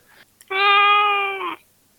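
A single long, drawn-out meow from a tomcat, loud and very close, holding a steady whining tone for about a second before trailing off. No one talks over it.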